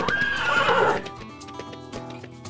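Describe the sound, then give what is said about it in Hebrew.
A horse whinnies loudly for about a second, then hooves clip-clop in a steady rhythm as the neigh fades out, at horse races held during wedding celebrations in 1913. “למחרת החגיגות נמשכו ונערכו מרוצי סוסים.”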